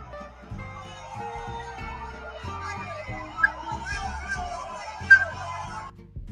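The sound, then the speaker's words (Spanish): A crowd of the president's fellow countrymen shouts and jeers at the president, some yelling "fuchi caca"; many voices overlap in a steady, dense clamor, with a couple of sharper, louder yells rising out of the noise before it fades at the end. “Además, se nota que el, audio fue un tanto alterado y había gente que le gritaba fuchi caca.”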